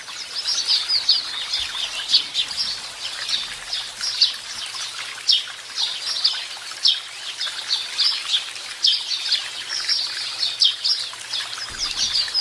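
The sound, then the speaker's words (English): A busy flock of sparrows chirps continuously, with dense overlapping high tweets and a fluttery rustle of wings throughout, steady with no talking. “So, yeah, spuggy noise, sparrow noise.”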